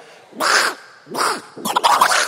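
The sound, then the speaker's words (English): A person imitates Donald Duck getting angry with three raspy, sputtering squawks, the last one longer and more frantic, loud. “But um, here's Donald Duck getting angry.”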